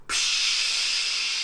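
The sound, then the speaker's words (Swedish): A steady, bright fizzing hiss of a Cola Zero bottle being opened, starting abruptly and holding strong without fading much. No voices are heard. “Jag kan inte hålla mig för skratt när du sitter och pyser med din Cola Zero”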